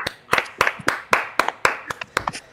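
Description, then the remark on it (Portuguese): A short burst of hand clapping in applause for the PicPay topic, roughly a dozen sharp, crisp slaps in a quick, slightly uneven rhythm, with no one talking over it. “Palmas para o tema do PicPay.”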